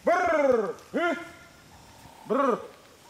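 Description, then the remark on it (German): A human voice gives a special call used by the Yao people of northern Mozambique to summon honeyguide birds: three loud, arching hoot-like cries, the first long, then two shorter ones separated by pauses. “Die Yao hingegen, ein Volk, das in Nordmosambik heimisch ist, nutzen spezielle Rufe, um die Honiganzeiger zur Mitarbeit zu bewegen.”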